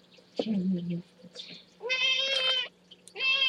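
A pet cat named Meiniang lets out a couple of loud, drawn-out meows, the second cut off at the end, after a brief low murmur, with a faint steady hum underneath.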